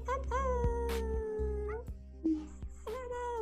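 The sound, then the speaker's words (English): A group of team members on an online call imitate wolf howls with their voices as a closing full-moon howl: a long, sustained, wavering howl that slides down at the end, a brief pause, then a new howl starting up, fairly loud. “you can join us in doing some like final conclusion wolf howls”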